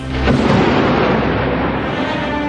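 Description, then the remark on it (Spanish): A loud, deep rumble of thunder from an intensifying storm rolls in after a brief moment and keeps growling steadily without a break, with no voices present. “La tormenta se intensifica creando al interior el ambiente de una película de terror.”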